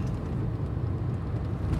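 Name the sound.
car driving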